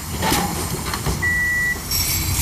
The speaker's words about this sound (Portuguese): Vou, vou só aqui entrar no autocarro.